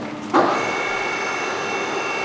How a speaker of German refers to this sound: Wir sind in der Glockengießerei Rinke in Sinn im Landillkreis. Flüssige Bronze, über 1000 Grad, es blubbert und zischt.